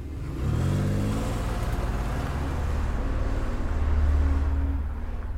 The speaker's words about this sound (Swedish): Mr Spicer spärrar upp ögonen och trycker i all spänning hårdare på gaspedalen.